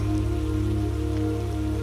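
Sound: rain falling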